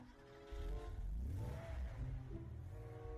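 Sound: car engine accelerating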